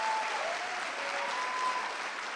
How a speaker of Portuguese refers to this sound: a equipe da Red é maravilhosa, eles fizeram esses slides hoje, porque eu mandei hoje os slides, uma salva de palmas para a equipe técnica da Red, eles merecem.